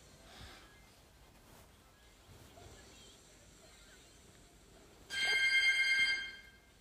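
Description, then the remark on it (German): A doorbell rings once, a bright, buzzing tone lasting about a second that stands out loudly after a stretch of quiet background noise. “Äh, sorry, irgendwer klingelt gerade.”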